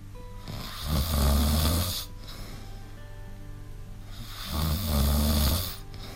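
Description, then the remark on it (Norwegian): Two loud, rumbling snores about three seconds apart, each a long rasping inhale with a deep low buzz, separated by quieter breathing. No one speaks. “Hæ, har du ennå ikke stått opp?”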